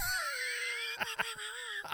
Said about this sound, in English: wait, why are you yelling at me? What I didn't do anything.